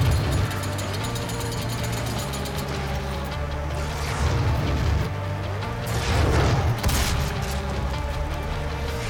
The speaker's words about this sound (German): Hast du nicht gerechnet, dass also ich jetzt mit der Kettensäge schon wieder komme?